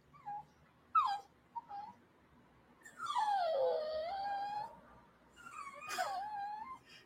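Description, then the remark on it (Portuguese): A dog whines and cries in a series of high, tonal whimpers while being held, not squeezed, to keep it from biting, starting with short yelps and stretching into longer drawn-out wails, with no talking. “Que choro bonitinho, esse que eu não tô apertando, só tô segurando você pra não me morder.”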